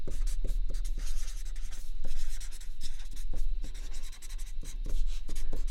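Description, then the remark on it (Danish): Steady squeak and scratch of a green marker pen writing on paper, broken into short strokes with small taps and pauses, continuing for several seconds with no one talking. “øhm, og så skriver jeg, finder jeg også den der grønne tus, for så skriver jeg det der, at være ekstremt tilpasningsdygtig.”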